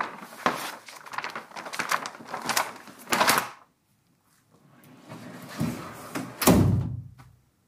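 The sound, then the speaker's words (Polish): A heavy drawer of huge stacked drawers in a vault, used to store archival performance posters, rumbles along its runners with clattering metallic scrapes, goes quiet briefly, then slides again and shuts with a solid, fairly loud thud. “Posiadamy także w skarbcu olbrzymie, e, spiętrzące się szuflady.”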